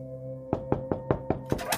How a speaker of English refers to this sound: I knocked on the manager's doors and asked her if she had called.